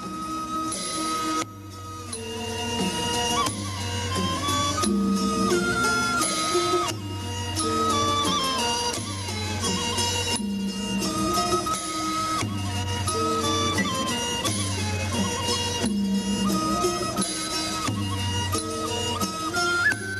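A Northern Thai folk melody played by a full ensemble, loud and close, with a bass figure that repeats every few seconds under bright layered instruments; no voices come through clearly.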